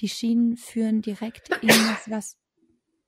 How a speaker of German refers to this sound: Gesundheit.